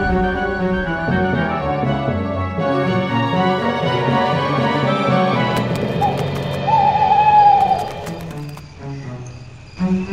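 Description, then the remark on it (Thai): Low, hollow owl hoots repeat in a steady pattern, blended with sustained musical tones. A brief higher warbling line rises in the middle before the sound thins out at the end. “เพราะตัวของมันและหนูทั้งรังนั้นได้กลายเป็นอาหารอันโอชะของนกเขาแมวทั้งฝูง ซึ่งนกเขาแมวนั้นก็หิวโหยโดยไม่น้อยเช่นกัน”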